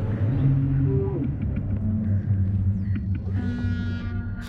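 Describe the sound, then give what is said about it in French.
Deep, rumbling calls of giant creatures built from recordings of whales floating and surfacing out of the water rather than underwater, with long tonal groans sliding low and a higher drawn-out wail rising near the end, dense, with no talking. “Il y a beaucoup de sons de baleines, pas dans l'eau, mais quand les baleines flottent, sortent de l'eau.”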